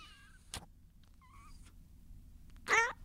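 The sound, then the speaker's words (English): A cat being squeezed, with a microphone held to its face, lets out short, squeaky protest noises: two soft, thin mews followed by a louder, sharper cry at the end, with no talking. “you really just squeezed your cat until he got.”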